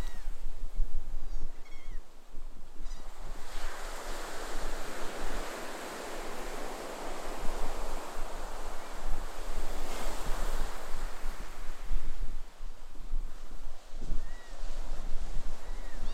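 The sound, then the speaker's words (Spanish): Steady ocean surf washes in long, rolling swells, with waves breaking and hissing back from the shore. A few faint, high calls, like seabirds, drift over the roar. No one speaks. “Comienza a sentir el rumor del conocimiento que guarda el océano y date cuenta de que este sabio ser te invita en un viaje a su pasado.”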